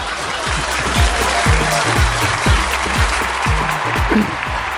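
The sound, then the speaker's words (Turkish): Steady, dense crowd applause fills the whole clip at a loud, even level, with rhythmic low thumps pulsing underneath about twice a second. No one speaks. “Hakkını vermek gerekir bazı haberleri başlıklar okutur diye hep söylüyorum ve editörlere alkış gönderiyorum ya.”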